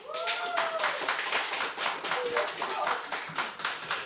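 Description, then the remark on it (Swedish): Continuous clatter of dishes and dropped porcelain in the kitchen of the Fountain House clubhouse Badsalen: dense clinks, knocks and rattles with a few brief ringing tones early on, busy and fairly loud for the whole stretch. “Vi sänder ju på Fountain House eh, eh klubbhus Badsalen, ni hör att det tappas porslin här och det är allehanda skrammel, så som det ska vara i ett kök.”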